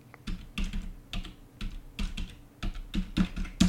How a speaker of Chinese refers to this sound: 因为我又在打字，让那个画面出来。等我一下哦。